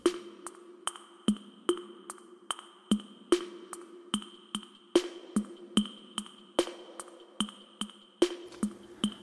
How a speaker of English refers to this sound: put some old uh, drum machine samples together, get a pretty basic rhythm